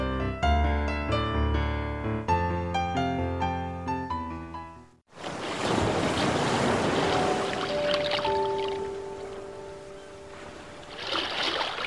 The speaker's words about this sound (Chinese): 听到海岸，你是不是以为又发生什么案件？才不是呢！你听，海哭的声音啊，不好听吗？